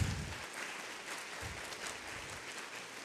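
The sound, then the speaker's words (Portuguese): A church audience breaks into sustained applause for Jesus, a dense, steady wash of many hands clapping at once for several seconds, with no voices standing out. “Pode aplaudir Jesus, pode aplaudir Jesus.”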